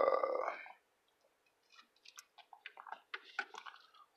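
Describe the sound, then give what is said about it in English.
A breathy exhale, then after a short pause a run of wet mouth sounds: small slurps and swallowing clicks, like someone sipping a drink. “like fuck, I need a fucking sip.”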